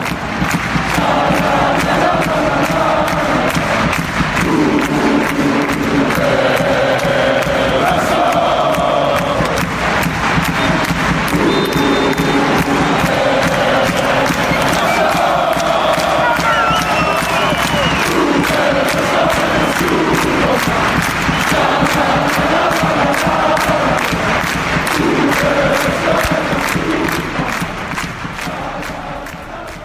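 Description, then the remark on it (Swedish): A large football crowd sings the chant "Ove Röster Deutscher Superman" in unison, loud and sustained for the whole stretch, with a repeating melodic phrase, scattered claps and shouts over a dense roar. “Men det som vore roligt med det här, om han eh, blir tränare för Barnsley, det är att vi kanske får anledning att höra ramsan Ove Röster Deutscher Superman igen.”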